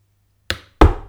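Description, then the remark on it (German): Two sharp knocks of the cap of a water bottle being tapped or dropped: a lighter click, then a louder, fuller thud a moment later. No one speaks. “Ja, es war ein Deckel von der Wasserflasche.”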